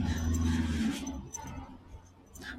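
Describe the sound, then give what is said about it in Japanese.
A vehicle rumbles past on a road, loud low engine drone at first and then fading away, leaving quieter outdoor roadside noise; recorded while walking along the roadside around half past six, when cars start coming out. “ちょっと道路沿いを歩いてるんで、結構車の音がするかもしれません。”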